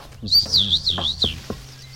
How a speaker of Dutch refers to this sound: Oh, dit is voor jou uh, eh, broekie vol, die twee vogeltjes die overvliegen,